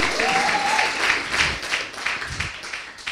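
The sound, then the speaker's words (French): A church audience claps and cheers steadily for a few seconds to acclaim the Lord, dense applause with a brief high whoop rising above it near the start. “Tu peux acclamer très fort le Seigneur.”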